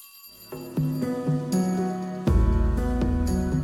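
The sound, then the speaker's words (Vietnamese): A lunch bell chimes out a short melodic sequence of about six ringing tones, each note struck and left to sustain, growing louder partway through, with no voices. “Chuông báo bữa trưa cũng vừa vang.”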